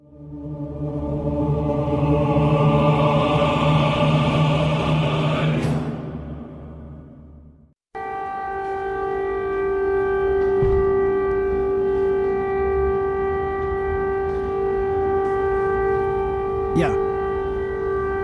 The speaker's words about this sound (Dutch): Ja, we moeten gewoon hier doorheen praten, want dit is hoe dat in Oekraïne dit gebeurt. Dit is het uh, luchtalarm in Zaporizhia. Vreselijk irritant luchtalarm.